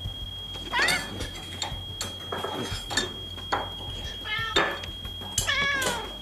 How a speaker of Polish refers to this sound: Poczekajmy na coś w filmie. No, kota raczej nikt nie będzie tłumaczył. O, inny kot.